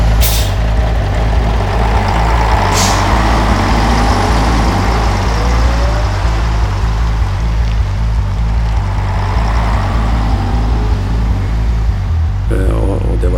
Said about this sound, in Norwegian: Samtidig kjører jeg i kolonne med 35 lastebiler fra Sivilforsvaret nordover.